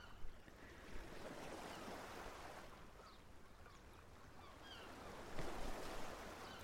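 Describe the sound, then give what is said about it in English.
Steady wash of sea surf rolling onto the shore, a continuous rushing hiss with a couple of louder swells breaking near the start and end, heard alone with no voices. “I love going in the sea.”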